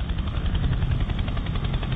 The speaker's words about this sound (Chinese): 那么，CH 五三虽然是世界上最大的直升机，但是一次呢也只能运走四十人，就这么急急忙忙的运了一天一夜。